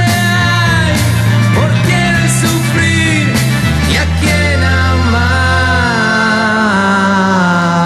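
A vocal group sings a song over full instrumental backing with a steady bass line, loud and continuous from start to finish.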